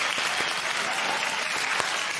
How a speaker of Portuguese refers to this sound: Temos que aplaudir agora. Prepara o aplauso